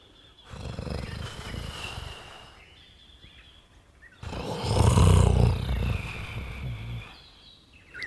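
A lion roars twice inside a cave, echoing: two long, deep, rumbling roars, the second louder and fuller, separated by a brief pause, with no one speaking.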